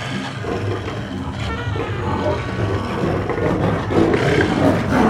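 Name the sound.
lion roaring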